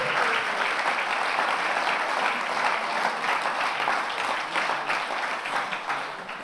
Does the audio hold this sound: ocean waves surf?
no